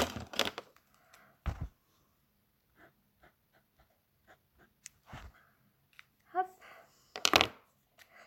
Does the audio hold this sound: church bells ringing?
no